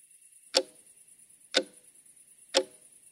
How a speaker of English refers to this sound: That's the clock in my bedroom, and right now it's telling me it's 2:37 a.m.